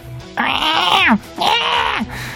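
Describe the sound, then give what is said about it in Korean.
Two drawn-out, harsh yowls from cats fighting behind a school follow one another, each rising into a sustained wail and then sliding down at the end, loud, with a short pause between them. “앙칼지게 소리치고 막 툭툭 하길래 제가 그랬어요.”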